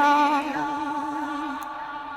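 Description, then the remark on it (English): A sustained sung vocal note, drenched in a delay and reverb effect with a dub sound, slides slightly in pitch before ringing out as a smeared, echoing tail. It's loud, with no other talking. “interesting delay and reverb, mm-hmm.”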